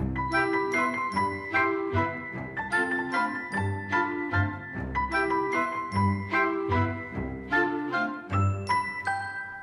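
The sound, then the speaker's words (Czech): The St. Florian church bell in the tower of the Church of Saints Peter and Paul in Hosín rings steadily with rapid, regular strikes, its rich metallic tones overlapping and humming on between blows. The ringing is loud and continuous, with no voices. “Ve věži zůstal jediný zvon svatý Florián.”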